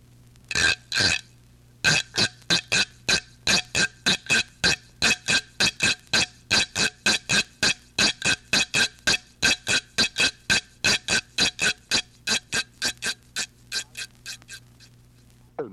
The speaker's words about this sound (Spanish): Carrasca.